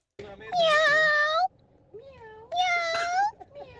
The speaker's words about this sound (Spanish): Mucho gato, eh. Miau.